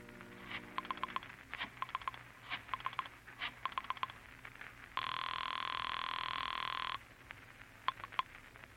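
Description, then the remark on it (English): A telephone is dialed from an apartment with quick clusters of clicks, then a steady two-second ring sounds before a few more clicks follow. It is clear, with no voices. “Once you reach your apartment, you dial Julie's private phone at the club.”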